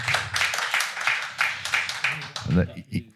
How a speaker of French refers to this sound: Je pense qu'on peut les applaudir.